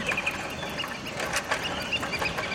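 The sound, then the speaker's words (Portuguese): Small birds sing under the shade of trees, chirping and twittering in quick, overlapping bursts over a steady outdoor hiss, a busy chorus of bright calls with no one speaking. “Sob a sombra das árvores, você ouve os passarinhos cantando,”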